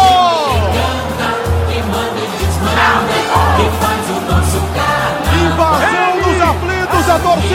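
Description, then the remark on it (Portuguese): A packed stadium crowd of Náutico supporters cheers and chants loudly and continuously after a win securing promotion to Série B, many voices overlapping, with steady pounding drum beats underneath and occasional shouts rising above the roar, as fans invade the stadium and mix with the players. “invade o estádio. Ele... Jogadores se misturam com a torcida, uma noite mágica.”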